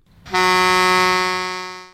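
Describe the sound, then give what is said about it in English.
A football match siren on the Coat Hanger Football Radio Show, 2SER 107.3, blares in one long, steady blast, kicking in abruptly with a harsh, buzzy horn-like tone and holding loud for close to two seconds, with no talking. “Let's have the siren.”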